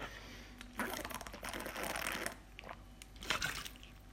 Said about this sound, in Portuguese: Agora vai ser uma pausa para água que eu estou mais seco do que tudo.